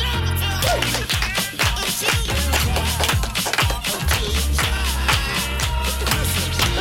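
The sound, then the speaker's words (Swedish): Several people clap along in a steady rhythm to loud, upbeat music in a studio, their claps blending with the beat throughout. “Och vet ni, vi börjar ju som vanligt med att klappa med.”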